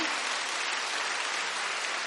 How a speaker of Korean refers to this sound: 우리 서로 감사하고 축하하고 격려하는 박수를 서로를 위해서 한번 칠까요?